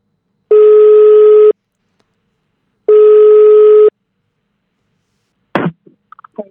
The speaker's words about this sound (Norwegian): Men uh, vi kan jo prøve å ringe der og se om de tar telefonen.